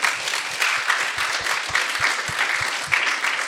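An audience applauds steadily, a dense wash of many hands clapping at an even, sustained level throughout, with no voices standing out.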